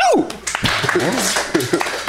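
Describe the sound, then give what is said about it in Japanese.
Scattered hand claps ring out during a Japanese radio show, mixed in with people talking and laughing, the claps irregular rather than a steady round of applause. “拍手大変だよ”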